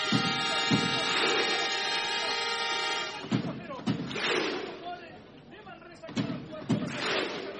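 A large arena crowd, standing, performs the viking thunderclap before the start of the match: a sustained horn-like drone, then booming unison claps at slow, spaced intervals, echoing through the venue over a steady crowd murmur.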